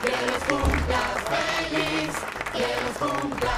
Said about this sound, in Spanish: Y hablando de cumplir, hablando de cumplir, déjame aplaudir a la eh. cumpleañera, a la dos cumpleañeras.